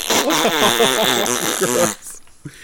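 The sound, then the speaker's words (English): A counselor puts his hands up to his mouth and blows to fake a fart, producing a loud, buzzy raspberry that wobbles for about two seconds before cutting off to near silence and a faint breath. “And then the counselor put his hands up to his mouth and he, he went.”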